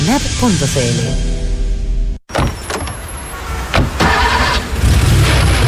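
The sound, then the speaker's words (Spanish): A Salfa Rent rental car's engine starts up at pickup with a rising, revving whine, then after a brief cut a steady rumbling idle with a few mechanical clunks. “Así de rápido funciona el retiro y devolución de tu auto en Salfa Rent.”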